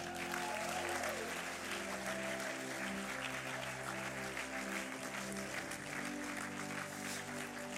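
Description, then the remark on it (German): Steady, warm applause from an audience that includes people from Thun and Interlaken as a guest is invited onto the stage, a dense wash of clapping hands that holds at an even loudness for several seconds without pause. “Und ähm, ich hätte ihn gerne so als Tuner, Tunerinnen, Interlakener habe ich ganz viel gesehen, Interlakenerinnen mit einem warmen Applaus jetzt auf die Bühne bitten.”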